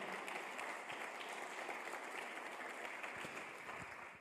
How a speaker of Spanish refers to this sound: Si lo crees, dale un fuerte aplauso al Señor.